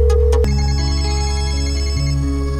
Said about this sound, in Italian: Allora, avventura. Telefonata. Squillo.